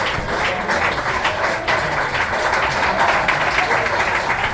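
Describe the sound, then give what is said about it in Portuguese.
Steady, dense clapping from a group fills the whole stretch at an even loudness, a continuous crackling wash of applause with some murmur of voices mixed in. “Ela, aplausos, ela ficou ensaiando.”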